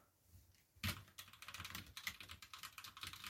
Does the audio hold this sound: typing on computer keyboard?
yes